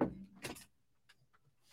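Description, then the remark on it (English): An office chair with armrests that leans back is being adjusted: a quick mechanical clunk followed by a short airy whoosh, then a few faint creaks and rattles as the seat settles, with no voices. “What's going on with this chair? Watch this chair”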